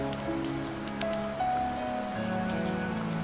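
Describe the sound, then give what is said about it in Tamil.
Steady rain patters on a hard surface, with a few louder drops standing out now and then. Soft, sustained musical tones play underneath, and no one speaks. “so வானத்தில் இருந்து நம்மளுடைய பூமிக்கு பாலம் போடுற அந்த மழை வந்து நமக்கு கற்றுக் கொடுக்குதுங்க அன்பை பற்றி சந்தோஷத்தை பற்றி அமைதியை பற்றி இன்னும் எவ்வளோ விஷயங்களை வந்து கற்றுக் கொடுக்குது”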